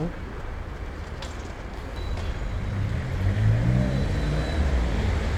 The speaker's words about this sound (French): Après, les voitures à droite. C'est bizarre parce que c'est un noir qui est blanc.